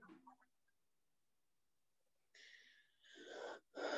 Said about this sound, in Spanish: Esa respiración bonita, chinga, me encantó. Es lo que usualmente hago cuando ya toco fondo a veces.